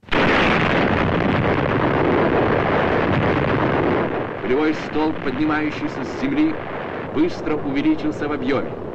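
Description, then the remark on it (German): The hydrogen bomb Tsar detonates on the Russian Arctic island of Novaya Zemlya in October 1961: a loud, sustained roaring rumble fills the first four seconds, then fades to a low background rumble while someone starts speaking over it. “Und noch im Oktober auf der russischen Arktisinsel Novaya Semlya detoniert die Wasserstoffbombe Zar.”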